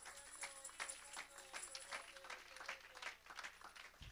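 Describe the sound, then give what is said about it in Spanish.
An audience applauds to the glory of God, a steady wash of many hands clapping that stays fairly even across a few seconds before cutting off abruptly. “Si alguien entiende lo que estoy diciendo, un aplauso a la gloria de Dios en esta hora.”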